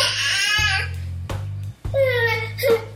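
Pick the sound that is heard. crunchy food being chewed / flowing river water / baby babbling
baby babbling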